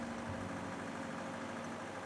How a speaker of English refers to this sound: pulled up in a milk truck while I was walking home.